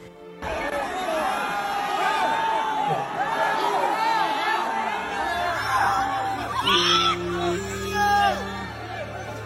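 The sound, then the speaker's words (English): A large concert crowd screams and yells at once while the music plays, a dense, loud, continuous wall of overlapping shrieks, with a steady low droning tone joining in partway through. “People were screaming bloody murder, literally.”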